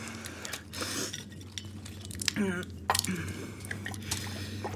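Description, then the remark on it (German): Water is poured into a glass with a short, rising gurgle near the middle, surrounded by light clinks of glassware and soft background murmur. “Haben Sie vielleicht ein Glas Wasser für mich?”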